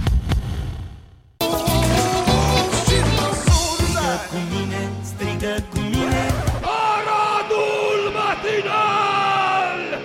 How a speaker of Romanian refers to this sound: mergem pe … și enjoy